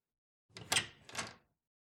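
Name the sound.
room door being opened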